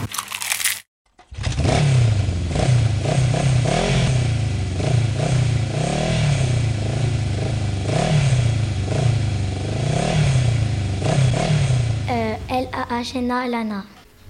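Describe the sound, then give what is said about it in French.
A motorcycle engine revved again and again in rising and falling surges over a steady rumble, with a short burst of talking near the end. “Cette moto, j'en fais avec mon papa.”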